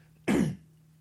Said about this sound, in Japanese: ちょっと始まって急にあれなんですけども咳払いします